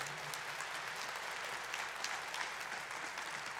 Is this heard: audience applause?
yes